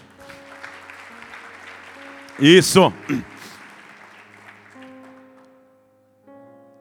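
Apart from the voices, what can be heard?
audience applause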